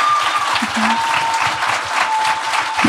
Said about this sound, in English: So thank you all so much for coming out. Give yourselves a round of applause for making it out to the show.